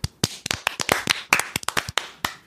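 A burst of loud hand clapping: about a dozen sharp, crisp claps in a quick, slightly uneven rhythm, with no voices over them.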